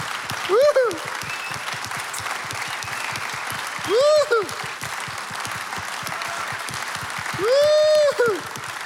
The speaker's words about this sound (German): Lasst uns den Menschen heute einen big Applaus geben. It's amazing. Ein big Applaus. Woohoo.